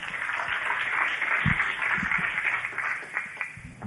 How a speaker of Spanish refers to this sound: Tremendo, un aplauso para ese caballero.